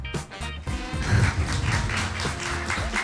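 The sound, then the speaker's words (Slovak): A short, unprompted burst of clapping from a small group, dense irregular claps that rise quickly and keep going steadily for a few seconds with no talking. “nevypýtaný potlesk na začiatku, toto bude dobrá epizóda.”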